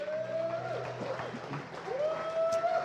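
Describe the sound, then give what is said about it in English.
Steady audience applause runs the whole time, a dense wash of clapping mixed with sustained musical tones and scattered voices. “Come on, give him one more hand clap.”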